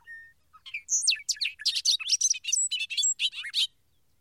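A quick, busy run of high chirps and twittering calls of migrating birds flying overhead at night over a city, rising and falling for about three seconds, fairly clear against an otherwise quiet background with no voices.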